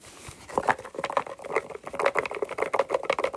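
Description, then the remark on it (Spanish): A small box with five paper slips inside is shaken for a giveaway draw, giving a quick, dense run of light rustling and pattering taps that keeps going for several seconds, fairly soft, with no voices. “Ahora es pues una cajita con, con cinco papelitos y ahora son cuatro.”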